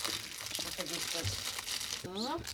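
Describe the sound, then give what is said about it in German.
Steady crinkling of plastic packaging as cookies, including vanilla crescents, are unwrapped, a rustly crackle running the whole time, with brief bits of voice murmuring over it. “Also ich würde sagen, wir packen jetzt die, diese schönen Plätzchen aus, die wir äh, ja. geschenkt bekommen haben beim Hörerbrunch.”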